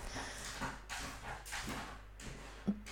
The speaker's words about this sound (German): Das ist mein Hund, der an der Tür kratzt. Ähm, also ignoriert das einfach.